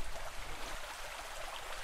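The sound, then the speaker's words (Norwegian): Steady, continuous trickling water, like a small stream running over stones, with a soft, even hiss and no breaks. It plays alone, with no voices. “Det er jo bare å høre på vannet sildre og Det er en helt egen ro.”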